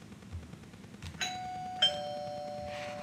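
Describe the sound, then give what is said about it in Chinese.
A home's doorbell rings during afternoon tea in the kitchen, with two bright chime notes, one struck just after the other, their clear tones lingering and slowly fading over a quiet, faintly humming background. No one speaks. “有一天，她和妈妈正在厨房喝下午茶，刚要开始喝的时候，门铃响了。”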